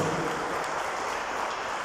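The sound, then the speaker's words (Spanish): An audience breaks into steady, dense applause for Christ Jesus in the evening, a continuous wash of many hands clapping at an even loudness with no voices standing out. “Denle un aplauso a Cristo Jesús, por favor, en esta noche.”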